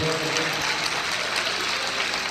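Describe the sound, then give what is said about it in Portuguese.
A church audience applauding God together, a dense, steady wash of many hands clapping at once with no individual claps standing out, sustained and fairly loud throughout. “Solte a mão do teu irmão e da tua irmã e comece a aplaudir o teu Deus, comece a aplaudir o teu Senhor.”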